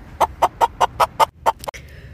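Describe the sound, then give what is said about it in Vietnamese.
A mother hen in a chicken coop squawks in alarm with a rapid series of about nine sharp, loud clucks in quick rhythm, ending with a brief flutter-like rustle as she spreads her wings and jumps onto the floor. “Bỗng trong chuồng gà nghe quát một tiếng thật to Quát quát Gà mẹ từ trong chuồng kêu thất thanh Xòa cánh nhảy tót lên sàn kêu te tái”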